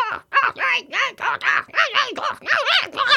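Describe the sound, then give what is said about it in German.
A bored bird kept on its own screeches loudly, letting out about ten harsh, rapid squawks in an unbroken run with barely a pause between them. “Ansonsten reißt die Geräuschkulisse des gelangweilten Vogels einem schon an der Haustür beide Ohren ab.”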